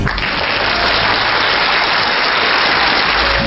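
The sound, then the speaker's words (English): A recording of a crowd applauding loudly, played as a welcome: a dense, steady wash of clapping that keeps up at full strength from start to finish, with no voices over it. “We also have a third party with us this week who hasn't been with us for a couple of years, and we wanted to welcome back to the Paracast with a round of applause if I can find the proper recording.”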